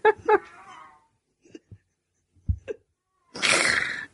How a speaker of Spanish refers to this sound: me cago en el puto gato de los cojones.